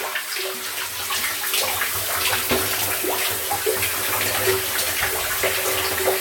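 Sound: shower water running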